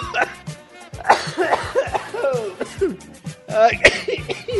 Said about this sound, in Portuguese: e eu vou tossir de novo.